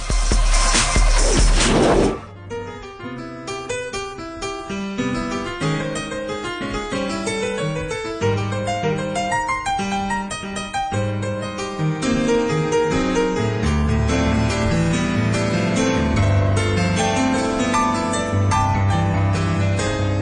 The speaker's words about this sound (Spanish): Quédense con nosotros, haremos un puente musical delicioso. Está escuchando Momento Económico.